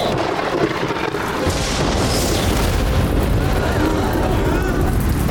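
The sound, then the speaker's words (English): A magical lightning strike: a loud, crackling boom that swells into a sustained, roaring rumble, holding steady for several seconds with no voices over it. “More lightning? Seen it.”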